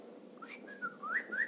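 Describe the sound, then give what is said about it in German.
A person whistles an imitation of a large hummingbird's call: a few thin, sliding notes that rise in short chirps, fairly quiet, over a low steady background hum. “Das ist ein Kolibri.”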